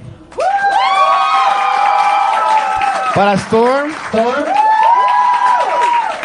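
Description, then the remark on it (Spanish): A crowd at a talent show bursts into loud, sustained applause and cheering for a veteran, with high whoops and shouts rising over steady clapping for several seconds, and a voice briefly calls out through the noise. “Una, un aplauso para nuestro veterano.”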